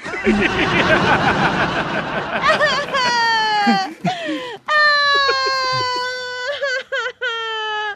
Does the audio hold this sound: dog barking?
no